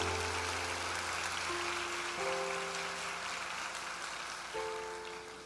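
A church audience applauds the word of God after a Bible reading, clapping steadily in a dense, continuous patter while sustained keyboard chords hold underneath, shifting a few times. No one speaks.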